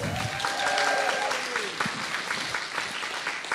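An audience applauds with dense, steady clapping that fills the whole stretch. A few voices call out or cheer over it near the start before the clapping carries on evenly.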